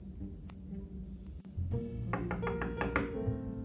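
A series of about five or six firm knocks on a wooden door in quick, steady rhythm, clear, preceded by a softer tap, with no one speaking.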